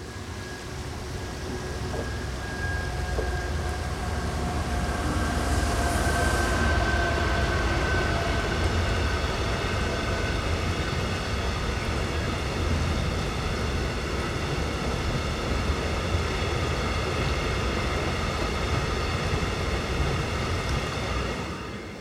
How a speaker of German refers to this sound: Die Kalkbahn fährt durchs Angerbachtal. Das ist im Prinzip ein Naturschutzgebiet, aber weil sie schon so lange hier lang fährt äh, und diese Strecke wichtig ist für die Kalkwerke weiter oben im Kreis